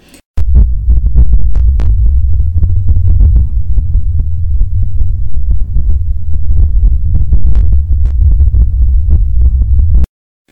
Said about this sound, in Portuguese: Estes sons são microruídos produzidos no interior do solo e transmitidos em tempo real por meio de um sistema de equalização e amplificação que também fica no interior do furo.